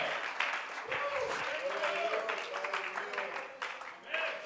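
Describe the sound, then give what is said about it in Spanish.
A church audience bursts into steady, sustained applause offered to God, a dense wash of many hands clapping at once, with voices calling out and cheering underneath throughout. “Bríndele gloria y honra y alabanza y un aplauso más lindo a la presencia del que está sentado en el trono.”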